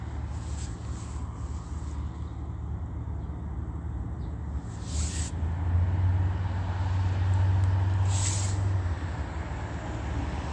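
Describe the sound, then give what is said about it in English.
Steady traffic rumble at a busy intersection of Euclid and Holt Boulevard, with an Omnitrans bus's heavy engine low drone swelling in the middle as it continues onto a red light, and brief hissing bursts, like air brakes or passing vehicles, recurring every few seconds. “Omnitrans continuing onto the red light at uh, Euclid and Holt Boulevard on traffic cameras. Stopping to engage in prolonged loitering”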